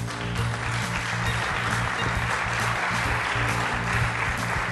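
An audience at Savor 2015, a Brewers Association event, claps steadily for several seconds to thank a presenter after his presentation, a dense, even wash of many hands applauding at a fairly strong level, with no voices breaking through.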